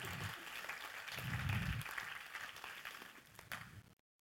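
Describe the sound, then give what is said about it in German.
An audience bursts into sustained applause, a dense wash of many hands clapping that swells in the middle and then stops abruptly at about four seconds. “Geben wir ihm Applaus.”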